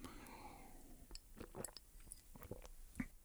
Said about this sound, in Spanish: wow, déjame tomar agua.